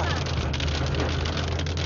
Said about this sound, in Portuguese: Nossa, tá chovendo, hein?